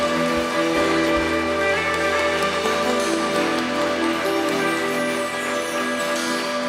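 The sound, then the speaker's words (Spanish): A church audience applauds loudly for the Lord, a dense, steady wash of many hands clapping that holds for several seconds, with sustained musical tones humming underneath. “Dale un aplauso fuerte al Señor entonces.”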